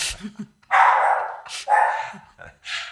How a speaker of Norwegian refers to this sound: Oh, dette blir mye bjeffinga, ja.